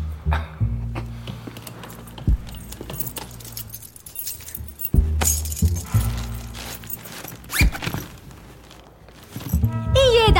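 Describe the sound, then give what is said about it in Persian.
Keys, including a key to a garden in Fasham, jingle and clatter in several bursts, bright metallic rattling over a low background hum, with a brief voice near the end. “اینم بقیه وسایلی که تو خونه داشتی کلید باغ فشم”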